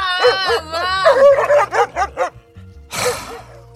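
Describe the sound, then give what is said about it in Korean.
A drunk woman who has crawled under a truck imitates a dog, starting with a wavering howl-like whine and then several quick yapping barks, loud, ending in a breathy, rough burst. “영혼이 아이처럼 순수하고 감수성이 예민하지만 술만 들어가면 트럭 밑에 들어가서 멍멍이가 되는 그녀.”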